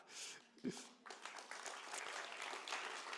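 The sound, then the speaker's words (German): Audience applause for themselves and their leaders, a dense steady patter of many hands clapping at moderate loudness, with a brief louder thump early on and the clapping continuing evenly to the end. “Deswegen Applaus für euch selbst und für eure Leiter.”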